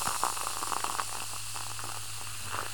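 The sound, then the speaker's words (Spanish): A steady fizz of bubbles rising from a drink can shaken during a trip, with soft crackling pops over a constant hiss and a faint low hum underneath, no voices. “Salen hartas burbujas.”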